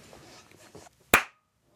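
hand clapping

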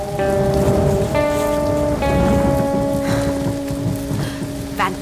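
heavy rain falling

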